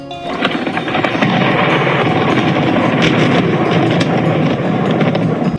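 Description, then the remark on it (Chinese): A loud thunderclap from lightning striking just overhead rolls into a heavy, continuous rumble that roars steadily for several seconds without fading, with low crackling texture throughout and no voices. “一阵巨响，把他们都吓了一大跳。显然，那道闪电就近在他们的头顶上。”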